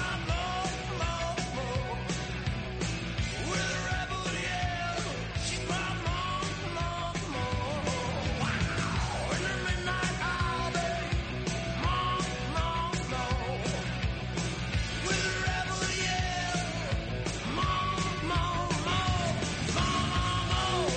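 A loud, driving rock song with shouted, yelling vocals over dense guitars and pounding drums, playing continuously at full volume throughout.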